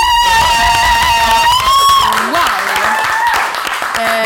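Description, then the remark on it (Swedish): A loud burst of applause and cheering fills the moment, dense clapping swelling after a sustained tonal, whoop-like opening and carrying on steadily to the end. “Ja, det är fan, kräver en applåd till?”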